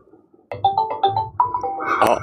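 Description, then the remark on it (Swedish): A Google Duo video-call ringtone in a web browser chimes in with a quick run of bright, melodic electronic notes repeating in a steady pattern, fairly loud, with no voices over it. “Jaha, nu ringer någon på Duo här.”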